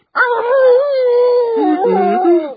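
An old hunting dog, head raised, lets out a single long, mournful howl lasting a couple of seconds, its pitch wavering and dipping toward the end. It is loud, with no talking.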